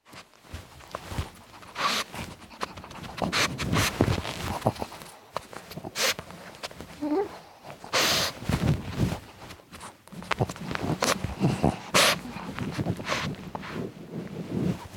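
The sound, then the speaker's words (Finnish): Two dogs, Hertta and Rauha, play and run around outdoors: irregular bursts of scampering paws and scuffling, with rustling and some wind buffeting, and no voices. “Yritän unohtaa filosofian ja koiran hurmeisen historian leikkimällä hertan ja rauhan kanssa.”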